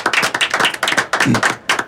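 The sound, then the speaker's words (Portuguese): A short round of applause from a few people for a guest of the Resenha show, quick uneven claps layered together, fairly loud and steady for a couple of seconds with no one speaking. “aquela salva de palmas tradicional do Resenha, nosso convidado.”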